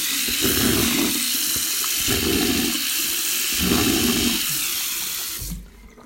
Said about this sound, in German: Und dann, ganz wichtig, noch einen Schluck aus dem Wasserhahn schlürfen.